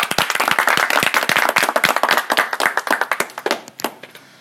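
Rapid hand clapping from a few people, a dense run of sharp claps that thins out toward the end with a few last scattered claps.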